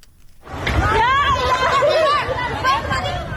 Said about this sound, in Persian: این صدای وحشت مردم سیل زده دشتیاری است زنی تا کمر در آب ایستاده و فرو ریختن خانه خشتیگلیش را نظاره می کند